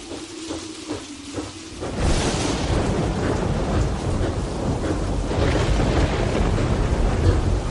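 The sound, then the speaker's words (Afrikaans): A storm erupts after a quieter opening: heavy rain and a deep, rolling rumble of thunder fill the scene loudly and continuously, swelling again toward the end. “Hoe hoe kan jy slaap in so 'n storm?”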